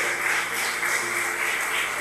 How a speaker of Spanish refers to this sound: Aleluya, dale un aplauso al Rey de Gloria. Amén.